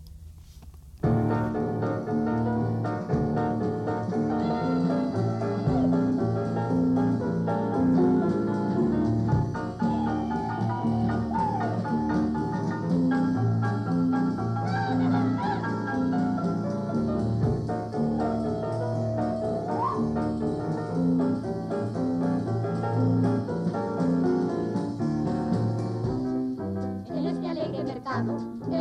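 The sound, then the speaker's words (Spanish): A recording of the first version of a stage musical that premiered in 1963 plays continuously at a steady, full volume, with a rhythmic low bass line, layered instruments and a melody weaving through the middle. “Vamos a escuchar esta primera versión del Landru que se estrenó en 1963.”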